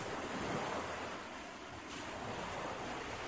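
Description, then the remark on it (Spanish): Steady ocean surf washing onto a beach at dawn, heard from inside a run-down van with no door, a broad continuous rush of breaking waves with a soft swell midway and a faint breath of wind, no voices. “Miró alrededor y cayó en la cuenta de que se encontraba al interior de un vehículo tipo van, deteriorado y carente de puerta, por donde observaba la playa.”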